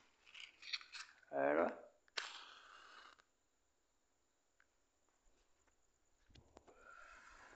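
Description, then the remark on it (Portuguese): A lighter is flicked several times to light a cigarette, dry scratchy clicks followed by a sharper strike and a short hiss, with a brief spoken word and strong wind gusting in at the end. “Vou acender o cigarro, peraí.”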